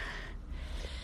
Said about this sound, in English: So you might hear my bulldog in the background. He's heavy breathing.